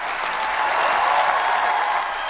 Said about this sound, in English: It was one of the most emotional moments in the history of UN summits. The crowd in the conference hall cheered, applauded, and shed happy tears.